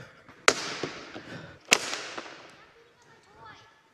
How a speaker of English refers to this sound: No, maybe I need a different tool. Uh, hammer.